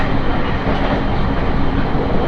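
Steady, loud rumble of a JR East train on the Tohoku Main Line between Sendai and Kogota, Japan, running on rails, heard from inside a carriage, with dense low-frequency roar and continuous rattling noise throughout, no voices.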